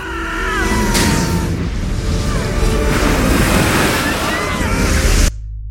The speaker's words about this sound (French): Quelques minutes plus tard, une vague submerge le Titanic, emportant sur son passage de nombreux passagers, dont Ida et Isidore.